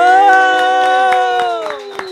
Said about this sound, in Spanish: Y ahora sí, señoras y señores, por favor, fuerte el aplauso para